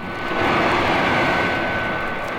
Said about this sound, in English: Psy Women's command ship directly ahead. Robot plane slow to rendezvous with ship.